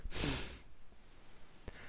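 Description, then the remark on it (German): A single forceful nasal snort, loud, a sharp rush of air through the nose lasting about half a second, then near silence with a faint short breath afterward. “Schnaufen mit der Nase. Nasengeräusche.”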